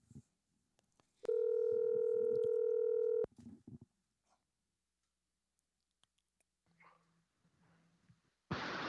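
A loud, steady telephone tone holds for about two seconds, then soft clicks, then two faint low ringback pulses of a phone call connecting, ending in a burst of noise.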